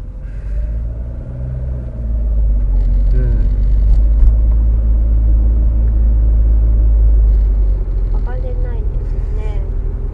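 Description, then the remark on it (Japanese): Steady low car engine drone and road rumble from inside a vehicle driving through Iitaka town, Hase area, loud and continuous throughout, with a man's voice talking intermittently over it. “ここはでも車では上がれないのか”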